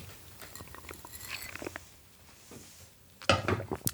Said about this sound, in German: So, einmal kurz einen Schluck Wasser trinken.